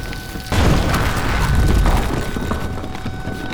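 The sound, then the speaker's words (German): A sudden heavy explosion, the third at a works, bursts in and tears down the last brick walls, then rolls on as a deep, rumbling roar that slowly fades over a few seconds, with no voices present. “Die dritte Explosion riss die letzten Mauern ein.”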